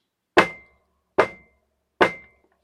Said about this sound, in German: Siehe, ich stehe vor der Tür und klopfe an.